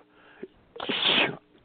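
A single sharp sneeze bursts out, a brief explosive hiss lasting about half a second, preceded by a quick inhaled catch of breath.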